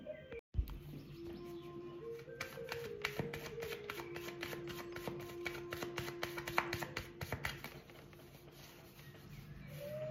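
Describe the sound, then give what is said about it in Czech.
Tarot cards are shuffled continuously during a tarot reading about a relationship, a rapid papery riffling and flicking with dense, uneven taps, while a faint steady tone hums underneath. No one speaks. “Ale já už se dívám na vaši fotku, míchám u toho karty a my se spolu podíváme, co nám Tarot poví o tomto vztahu.”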